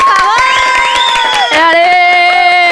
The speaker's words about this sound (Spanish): un aplauso por favor. que se sienta el entusiasmo en el foro!